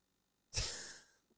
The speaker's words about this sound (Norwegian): Han hoste... Ja, hostepause.